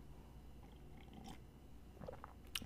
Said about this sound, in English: Uh, but yeah, let me sip on the hot toddy.